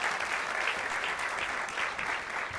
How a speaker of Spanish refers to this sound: vamos a darle un aplauso a nuestros voluntarios acá, se pueden sentar.